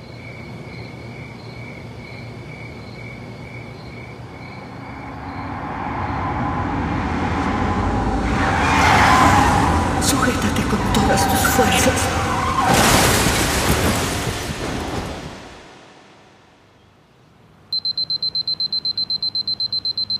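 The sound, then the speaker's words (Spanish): Against a night-insect chirping, a car's rising roar and screeching skid as the driver loses control build to a loud crash about two-thirds through, then fade into near silence before a steady high-pitched tone begins. “recordar cuando años atrás Arrio, su esposo, perdió el control de su auto”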